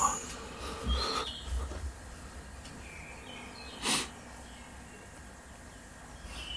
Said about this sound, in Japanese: 鳥の声が、あ、そうですね。あの、はい。ちょっと、一応、大牛という名前でやってまして、なんか牧場、朝の牧場をイメージした空間にしたいなと思っております。ので、そんな音を流しております。